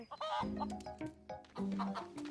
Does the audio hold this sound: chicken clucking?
yes